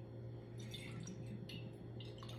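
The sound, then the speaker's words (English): Water gurgles and splashes out of a container in a quick, uneven series of soft bursts, fairly quiet, over a steady low hum, with no one talking. “If you don't see it, because this is um, audio for you, listen to the speed in which the water flows out.”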